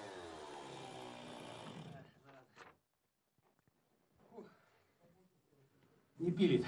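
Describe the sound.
A chainsaw roars loudly for about two seconds as a ship's chief engineer cuts through ice to free a neighbouring ship's propeller shaft, then cuts out, leaving faint scraping and a murmuring voice before a sharp loud burst at the end. The blunt chain has struck metal.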